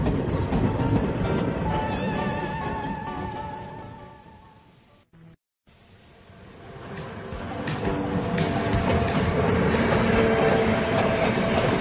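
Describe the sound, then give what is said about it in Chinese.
A train rumbles steadily along the rails through open country and one tunnel after another, with dense low roar and rhythmic clatter, fading to near silence for a moment before swelling back to full loudness. “火车继续往前开，经过了原野，穿过了一个又一个的山洞。”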